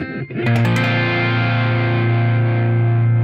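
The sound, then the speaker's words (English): A mildly distorted electric guitar at its minimum gain setting strikes a few quick strums, then lets a thick, gritty chord ring out loud and sustained to the end, with no voices over it. “So that's like your, that's your minimum gain out of this, um, but but we can pick it up.”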